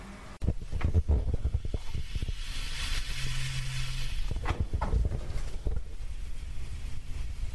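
A steady fizzing crackle of wine fermenting in a vat, with small pops and bubbling clicks scattered over a constant hiss and a low rumble underneath.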